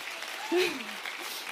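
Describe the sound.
An audience applauds with a dense, steady patter of clapping throughout, and a brief voice rises over the clapping partway through.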